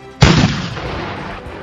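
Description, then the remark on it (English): A single loud cannon blast booms out with a sharp crack and deep low rumble, then trails off into a long fading roar. No one speaks. “Maths was important for artillery officers to fire cannons, you needed to be able to work out how far the cannonball would fire.”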